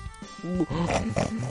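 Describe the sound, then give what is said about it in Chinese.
A voice imitates snoring for the pig character Hengheng Pig, who lies on a bed with eyes closed pretending to nap: a run of four or five low, grunting, piggy snorts in a steady rhythm, fairly loud and with no other speech. “哼哼猪继续闭着眼，假装打起了呼噜。”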